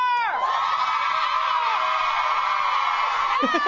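A studio audience, prompted by an applause sign, applauds and cheers loudly and steadily, with whoops and excited shouts rising over the dense clapping throughout.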